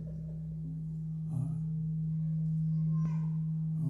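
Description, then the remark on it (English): A steady electrical hum from a sound system at a church service in Newark, Ohio drones continuously at a low pitch, with faint clicks and brief shuffling noises over it and no talking. “Okay, still humming.”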